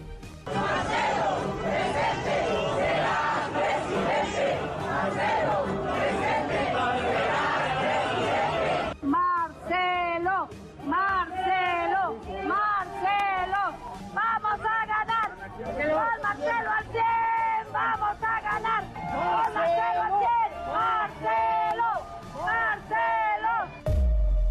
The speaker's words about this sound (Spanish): en el Ángel de la Independencia, decenas de mujeres se congregaron para respaldarlo con el lema Marcelo presente, será presidente las porras